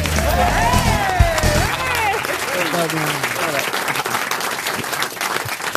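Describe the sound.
An audience claps steadily for several seconds, a dense, even patter of many hands, with voices calling out and whooping over it at the start before the clapping carries on alone.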